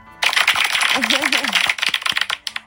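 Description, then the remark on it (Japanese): An applause sound effect: dense, crackling clapping that starts abruptly and runs for about two seconds, then thins into a few scattered claps, with a brief wavering voice-like cheer in the middle. “今ちょっと音量小さくしすぎて拍手なってるか分かんなかったもう一回やっとこ”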